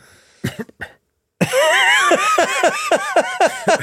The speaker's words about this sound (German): Nein, ich habe wirklich, wirklich, ich hab mich verschluckt. Das Husten war zwar an der richtigen Stelle.